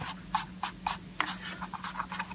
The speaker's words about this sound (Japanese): これをま代用しようと思います。えー、これを使って、えー、サドルを削って、えー、調整した上ではめていきたいと思います。新聞紙を敷いて、その上に、え爪研ぎを置いて、ここでこう、